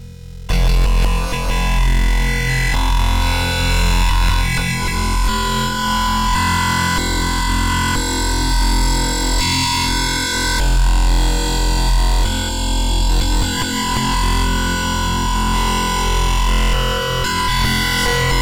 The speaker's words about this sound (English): In the following three examples, the Greek composer Stelios Manousakis uses an L system directly for sound synthesis using simple wavetable playback. The first example uses a bracketed L system mapped stochastically to 12 branch groups.